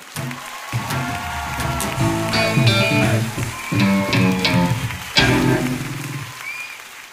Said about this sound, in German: So, das war's mit unserem diesjährigen Finale. Bitte nochmal einen Applaus für alle Beteiligten!